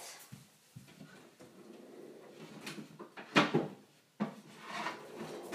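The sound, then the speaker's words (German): Soft wooden knocks and rustling as a cupboard is opened and a cutting board is pulled out, with a louder clatter midway and another thump near the end. No one speaks. “Ich hole jetzt noch ein Brett.”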